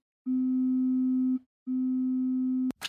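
Two long, steady telephone line tones, each just over a second, separated by a short gap, then a brief burst of noise as a caller's line is connected to a call-in program. No voices.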